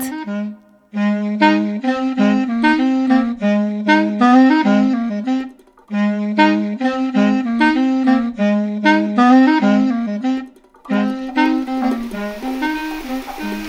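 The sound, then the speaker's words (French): A clarinet fashioned from a ski pole, played by instrument maker Benoît Gouillet, plays a lively melody of short, reedy notes, fairly loud, in three phrases separated by brief pauses, with no talking. “un bâton de ski entre les mains de Benoît Gouillet, ça devient une clarinette.”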